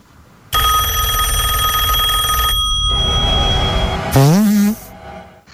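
A telephone bell rings loudly and steadily for about two seconds, followed by a fainter second ring and a brief rising, voice-like tone near the end.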